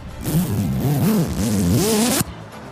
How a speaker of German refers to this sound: der Reißverschluss des Leichensacks wird zugezogen.